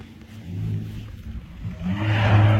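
A car engine revs up hard and the car pulls away fast as a man approaches it from his house, the growl rising in pitch and loudness toward the end as it accelerates. No one speaks.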